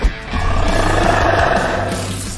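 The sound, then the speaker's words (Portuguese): A lion lets out a single loud, sustained roar lasting a couple of seconds, deep and rumbling with a rough, gravelly texture, with no talking. “Galera, leão rugindo.”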